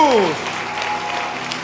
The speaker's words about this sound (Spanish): Aplaudiré más fuerte a Jesús.